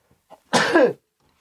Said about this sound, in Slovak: A ja si musím kýchnuť.